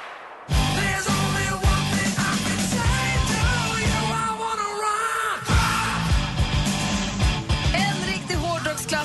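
A loud, dense hard rock track bursts in after a brief pause, with pounding steady drums, distorted guitars and shouted, forceful vocals driving straight through.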